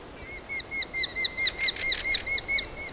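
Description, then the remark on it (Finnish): A European robin's ticking call: a quick, steady run of about a dozen sharp, high chirps, clear over a soft outdoor hiss, with no talking. “Punarinta, jonka tiksutus on jo loppukesästä alkaen metsän puutarhojen, pensaikkojen, metsäreunien perusääniä siellä ympäri vuoden reviirillään.”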